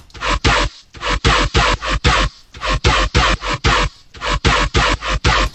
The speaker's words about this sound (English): So the the main bass sound, which I is quite interesting because it's three layers. So it sounds like this.